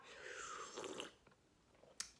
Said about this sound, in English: Right. So I've got my cup of tea. So if you hear me slurp, it's only that.